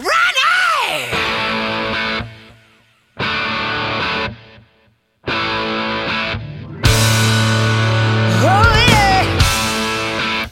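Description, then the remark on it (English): A wailing scream opens a rock track, then heavy distorted guitar chords crash in as loud bursts separated by short pauses, building into a denser full-band section with another high vocal cry. “And then it hit me uh, one of those wake up in the middle of the night things, and I said, "Wait a minute, that scream should be how the record starts,”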